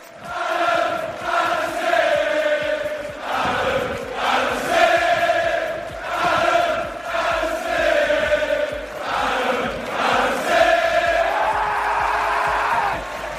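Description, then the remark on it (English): An AFC Bournemouth football crowd chants in unison, orchestrated by Adam Smith, loud rhythmic bursts of many voices rising and falling in repeated phrases, sustained throughout with no pauses, filmed on a mobile phone. “Steve Phillips said, This was my favourite moment, and he posted a video where Adam Smith was orchestrating the AFC Bournemouth crowd behind him whilst taking a video with his mobile phone.”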